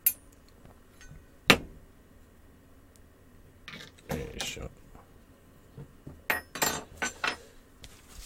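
Scattered metallic and glassy clinks and knocks from handling coffee-making utensils while making coffee, recorded in stereo, with a sharp clink early on and a cluster of clattering taps toward the end, mostly quiet between.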